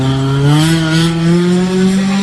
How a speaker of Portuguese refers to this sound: você está testando o motor.